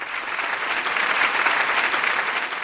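A large crowd in a gymnasium applauds steadily, the dense, echoing clapping holding at an even, fairly loud level throughout without any voices standing out.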